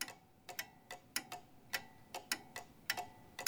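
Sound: clock ticking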